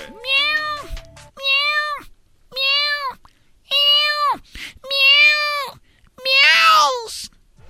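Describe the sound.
A cat meows six times in a row, each call loud and drawn out, with short pauses between them and the last one the most strained.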